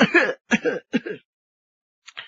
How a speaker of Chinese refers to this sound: 李寻欢一听，那心中一折个，焦焦拉拉的，不由得呀，往下俯身，用手捂着胸口，使劲的咳嗽了一阵。李寻欢一激动啊！这气儿就有点上不来